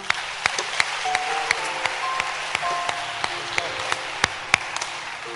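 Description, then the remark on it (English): An audience at a church service claps hands together, a dense stream of sharp, overlapping claps with a few louder smacks standing out, over faint sustained tones in the background. “Clap it's your hands.”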